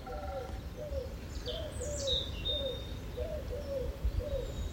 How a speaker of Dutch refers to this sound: Dit is niet in de radiotuin in Zeeland. Voor mijn werk zit ik op dit moment in Hilversum. En zo ochtends vroeg hoor ik in die lommerrijke buurten daar mooie geluiden. Duiven.